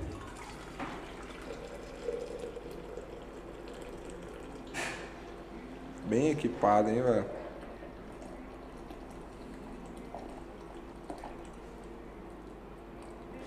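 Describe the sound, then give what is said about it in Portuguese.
Water is poured into a container in a short, gurgling burst lasting a second or two, its pitch rising as it fills, measuring out one liter of water for making coffee, with people talking briefly before and after. “Vou fazer um litro de água aqui.”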